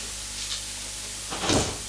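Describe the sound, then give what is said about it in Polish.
A door is opened and then closed: a faint creak or click early on, then a louder, rustling thud as it swings shut against a quiet background hum. No one speaks. “Drzwi otwieram, zamykam.”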